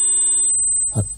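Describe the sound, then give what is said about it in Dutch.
A steady, buzzy electronic tone from telephone line interference sounds for about half a second, then cuts out, followed by a brief muffled burst of noise. “Ja, eh, het is weer zover. De storing op de telefoon.”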